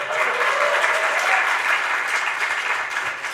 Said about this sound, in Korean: 여러분 박수 한번 쳐주세요.